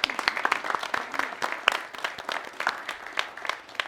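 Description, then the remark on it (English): Steady applause from a studio audience, many hands clapping at once in a dense, continuous patter that holds at an even level for a few seconds. “We want you to give yourselves a hand for being here.”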